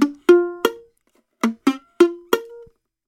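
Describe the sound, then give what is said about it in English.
A badly played B flat chord: about seven short, choppy guitar strums that sound muted and buzzy, each dying away almost at once, with no one talking. “Say if your B flat chord sounds like this.”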